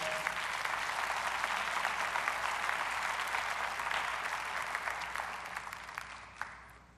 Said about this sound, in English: Everybody, everybody give our Mir people a big round of applause.